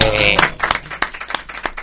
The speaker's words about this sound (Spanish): Y bueno, en este festejo, ¿qué podemos decir? Pidamos un aplauso, hermano.